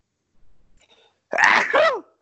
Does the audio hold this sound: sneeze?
yes